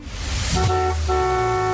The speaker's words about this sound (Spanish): Así es que vamos con los primeros bocinazos.